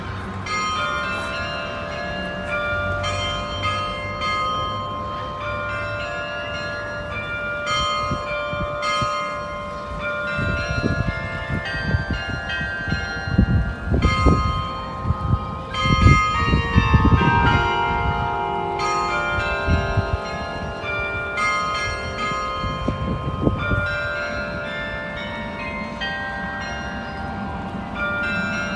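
Church bells ring out a recognizable melody, their tones overlapping and sustaining in a long, resonant carillon performance heard from a moderate distance, with a low rumble beneath and no voices.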